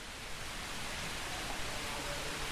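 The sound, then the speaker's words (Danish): Water from a courtyard fountain showing the goddess Harmonia splashes in a steady, unbroken hiss, even in loudness throughout, with no voices over it. “Og der har du så en gårdsplads, og har et meget, meget smukt springvand”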